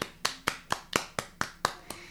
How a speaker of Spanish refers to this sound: Entonces, un aplauso a las maestras de Kinder